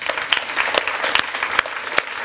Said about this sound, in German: ich war auch schon ein paar Mal dabei gewesen, an dieser Stelle finde ich, könnte man ihnen gerade mal einen Applaus geben.